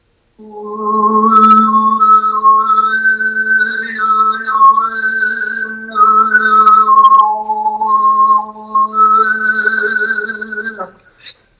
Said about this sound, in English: So, what do you do when you're going on a two hour journey and the car radio breaks down? You sing harmonics. and so, I did a lot of that. And so, in the car, you would have heard something like this.